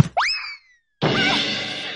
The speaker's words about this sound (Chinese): 谁家的足球砸到我了？ 糟糕，足球砸到别人了！